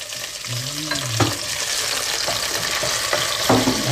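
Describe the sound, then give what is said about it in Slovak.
Halved cherry tomatoes sizzle steadily in a frying pan with a dense, crackling hiss, broken by a few sharp clinks and scrapes of stirring. No one speaks. “tak ten cesnáčik po nejakom čase vyberieme tak pridávame e, šery paradajky, nakrájane tak na polovičky.”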